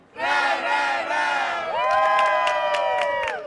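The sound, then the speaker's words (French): A crowd of young Catholic pilgrims at World Youth Day in Lisbon, greeting each other by shouting together in loud, sustained unison, their voices swelling into a long cheer with sharp claps or thuds punctuating the second half. “Progressiste ou traditionnaliste, il hurle en se saluant.”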